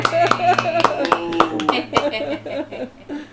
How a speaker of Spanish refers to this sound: Pero nada, vamos a darle un aplauso a la invitada. Gracias, gracias. gracias a ustedes. Un aplauso, un aplauso de invitado de tres minutos.